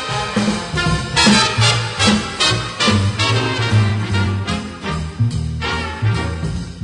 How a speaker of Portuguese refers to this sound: Agora, Bernardão, que som é esse de bateria, meu amigo? Sente?